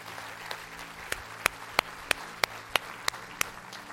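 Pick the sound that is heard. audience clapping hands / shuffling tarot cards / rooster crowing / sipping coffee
audience clapping hands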